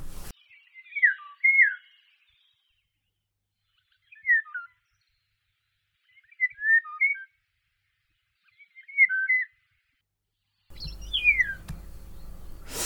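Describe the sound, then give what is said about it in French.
Eurasian golden oriole song: four short, fluty whistled phrases with pauses of about two seconds between them, then a harsher, descending call over rising background noise at the end. “C'est alors que retentit pour la première fois son chant mélodieux entrecoupé de petits cris faisant penser aux cri du jet des chênes.”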